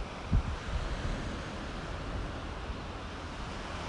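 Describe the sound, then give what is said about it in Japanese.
Steady ocean surf washes continuously with wind rushing across the microphone, a broad, even roar with a brief low gust thump near the start and no voices; live sound of sea waves, with the sea spreading out in front. “それではリアルタイムに海の波の音と自然の鳥のさえずりをご一緒にお楽しみください深呼吸しながらぜひ目の前に一面に広がる海と”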